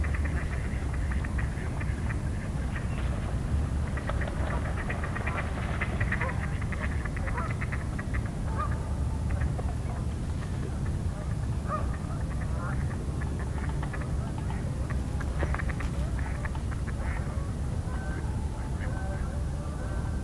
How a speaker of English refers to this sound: Got a lot of duck activity here. Sounds like all mallards.